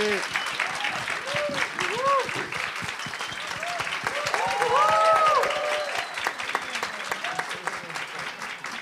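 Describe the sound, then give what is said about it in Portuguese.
An audience applauds steadily to welcome the musician Valença, with dense, continuous clapping, mixed with scattered cheers and whoops rising in the middle, loud throughout the whole stretch. “Por favor, muito barulho para o seu Valença.”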